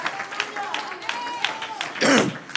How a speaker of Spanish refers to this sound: Un aplauso al Señor. Aleluya, un aplauso al Señor.